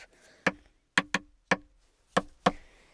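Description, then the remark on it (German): A pen taps on a table six times in an uneven rhythm, each tap a short, sharp, fairly loud click with a slight wooden knock, with silence between and no voices. “Ich klopfe mit einem Stift auf den Tisch.”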